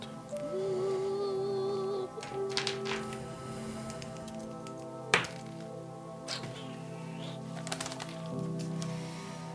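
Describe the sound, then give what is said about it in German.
Dice clatter and tumble across a hard surface as a history check is rolled, with a few separate bursts of sharp clicking and knocking, set against quiet, steady background music. “Würfel auf Geschichte, Glut.”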